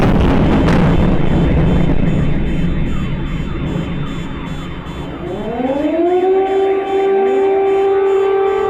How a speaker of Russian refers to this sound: И вот это вот еще один такой типичный звук. Это происходит так. Сильнейший взрыв, включается сирена оповещения. Вот это значит, вы точно в Харькове.